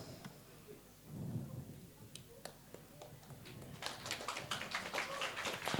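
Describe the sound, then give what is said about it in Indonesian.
A low murmur gives way to scattered claps from an audience at a moderated discussion, swelling into dense, crackling applause that grows louder and steadier through the final couple of seconds. “Oke, tepuk tangannya ya.”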